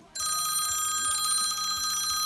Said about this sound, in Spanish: Bueno, ¿y vosotros qué tenéis de alarmas en, el móvil? ¿Qué tenéis de tono, de alarma? A ver, yo os cuento. Yo tengo móvil nuevo desde hace poquitín ¿Mm? y no tengo muy pillado todavía. Ah, eh. ya estaba El Classic, Classic. A ver, a ver.